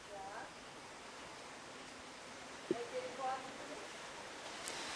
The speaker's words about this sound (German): Zu viel Wasser, dazu muss man sagen, es regnet hier, das sieht man vielleicht auch hinter mir seit Stunden schon.